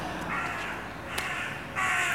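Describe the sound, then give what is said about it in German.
A crow flying overhead caws twice, harsh and raspy, with a short gap between calls; the second caw is louder. No one is speaking. “dann die Kreie, die immer wieder uns, ich habe das Gefühl, die Kreie verfolgt uns.”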